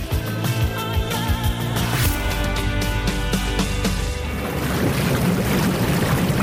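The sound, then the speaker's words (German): Loud, continuous bubbling and churning water from a whirlpool, a dense frothy gurgle with a low rumbling hum underneath that grows rougher and more turbulent toward the end. “Das sind die Blubber von dem Whirlpool. Oh Gott, das ist wirklich tierisch laut.”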